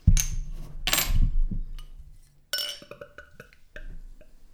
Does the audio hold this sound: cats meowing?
no